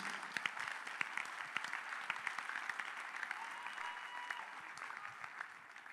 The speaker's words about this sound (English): Are you clapping hands for Jesus?